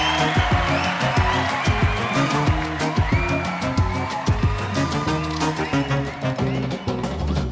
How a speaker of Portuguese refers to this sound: Palmas!